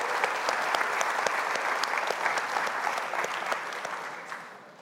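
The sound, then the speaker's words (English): A church audience claps steadily for its young people aged 25 or younger, many hands producing a dense, even patter of sharp claps with a few louder individual claps standing out, gradually easing off toward the end. “When was the last time we clapped for you in church?”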